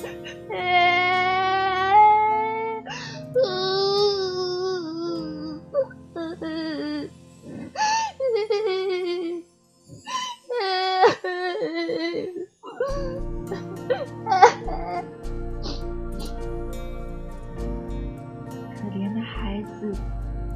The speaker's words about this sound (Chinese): 有的已经受了伤，令人心酸的哭声、呻鸣声、啜泣声，一路划破了寂静的街道。